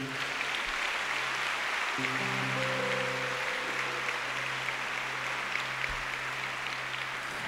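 An audience applauds Jesus steadily for several seconds, a dense, continuous wash of clapping at even loudness, with low sustained keyboard chords swelling in underneath partway through.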